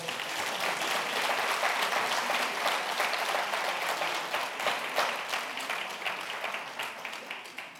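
An audience applauds steadily, a dense wash of many hands clapping at once, holding strong for several seconds before gradually thinning and tapering off toward the end.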